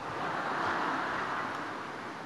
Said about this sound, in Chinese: 下雨怎么下的这么大？